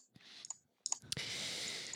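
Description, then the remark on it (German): Several quick, crisp mouse clicks spaced irregularly, like someone clicking through menu options, followed by a steady soft hiss of background noise. “Jetzt klickt er denn in Options rum.”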